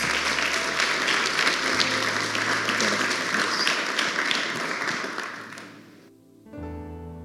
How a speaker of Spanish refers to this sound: le pido un aplauso